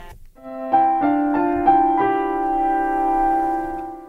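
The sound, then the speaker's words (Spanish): The instrumental intro of the original song from the film El amor de Andrea: sustained, bright tones enter one after another in quick succession, then settle into a steady, ringing chord. Moderately loud, with no singing or talking. “publicabais también la canción original de El amor de Andrea, que suena así.”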